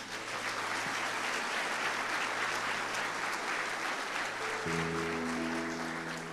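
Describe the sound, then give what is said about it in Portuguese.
A church audience bursts into sustained applause for Jesus, dense and steady throughout, with a low organ or keyboard chord entering toward the end beneath the clapping. “Quem pode aplaudir Jesus?”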